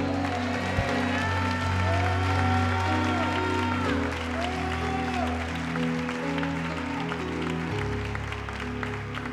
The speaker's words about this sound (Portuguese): Se você crer, dê um brado e aplauda o Senhor nessa noite.